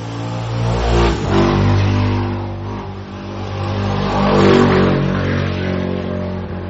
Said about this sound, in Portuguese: Nossa, motos barulhentas, poluição sonora.